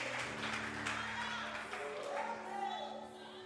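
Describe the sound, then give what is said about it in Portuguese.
An audience at a church service applauds Jesus in a steady, dense wash of clapping that holds for several seconds, with voices calling out over it and a low, sustained hum underneath. “Se é para aplaudir, aplauda com gosto. Aplauda Jesus.”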